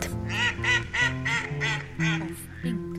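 A duck quacks in a quick run of about seven nasal calls, fairly loud, each one a short buzzy burst with barely a gap between them, over a faint steady background hum.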